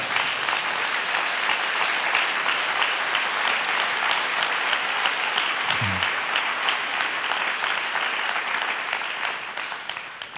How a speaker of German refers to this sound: Wahnsinn. Gib dir mal einen Applaus